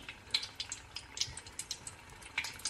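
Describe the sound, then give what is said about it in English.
Steady crackling and popping of food frying in hot oil as pieces are dropped in, with irregular bright spits and sizzles, fairly quiet, no voices. “I'm just going to start putting these in because I'm. Oh my god, splash, splash. I shouldn't splash.”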